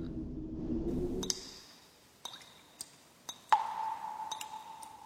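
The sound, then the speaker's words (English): Irregular water drips from a dripping kitchen faucet inside a house: about six sharp plinks with a bright ringing tone, following a low rumbling whoosh that fades out at the start. No one speaks. “Big Mouse, Big Mouse, I think it's raining inside.”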